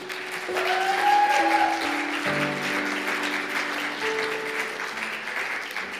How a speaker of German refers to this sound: Kann ich mal einen Applaus für unseren Jesus hören?